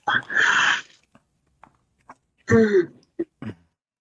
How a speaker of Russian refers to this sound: Блин, ой, чихну.